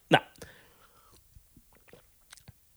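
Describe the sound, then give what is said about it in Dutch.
A sip of water: one sharp slurp at the start, then a few soft mouth clicks and swallowing noises fading into quiet. “Jij neemt een slokje water.”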